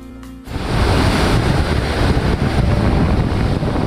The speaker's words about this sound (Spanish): A la orilla del mar